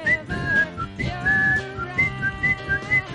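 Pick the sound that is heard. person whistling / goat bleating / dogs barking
person whistling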